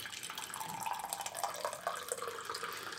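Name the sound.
water poured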